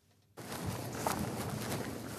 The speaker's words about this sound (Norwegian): To menn går med raske skritt inn mot et hvitt trehus på Løten i Hedmark.